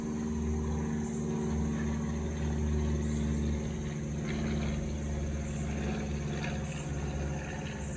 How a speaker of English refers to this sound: So, y'all, that's the third airplane that I heard. I don't know if I, I should leave this in the audio. I probably won't, but um, the, the part about the airplanes, but that's the third airplane. And I heard take flight.